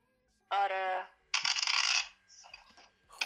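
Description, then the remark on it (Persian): Dice thrown during a game of backgammon clatter across the board: a brief ringing knock, then a loud, dense burst of rattling that settles into a few lighter taps as the dice come to rest. “خب یه لحظه میتونی از اون تاسو نندازی من یه سوال سریع بپرسم”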